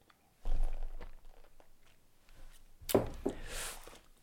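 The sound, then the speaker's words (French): A person takes small sips of coffee: a soft slurp near the start, then a louder, wetter sip and swallow near the end, with quiet pauses between and no talking. “Alors je bois encore une petite, petite gorgée de café.”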